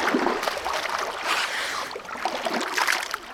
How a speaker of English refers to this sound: you were in there, we had the microphone on, and you were playing in the toilet splashing water all over, saying, "Oh, I don't want to hear Todd Glass anymore."